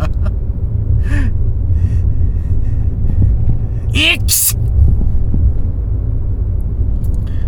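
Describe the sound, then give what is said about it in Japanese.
A person imitates a sneeze, trying for a comedy-sketch sneeze like Kato-chan's, with a short voiced build-up followed by a loud, breathy burst of exhaled air, over a steady low rumble, with a brief vocal sound earlier. “多分息を吐くと同時に大きい音も出さないとダメなんだろうな音ターンって言うだけじゃなくてもうわーって わーって言った方がいいんだろうなくしゃみする時って確かに大きい声出るもんね”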